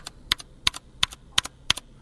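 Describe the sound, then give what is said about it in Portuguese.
A loose mechanical keyboard switch is pressed six times in a steady rhythm, each press giving a sharp click followed quickly by a softer release click, with no talking. “agora aqui eu vou mostrar uma tecla solta, né?”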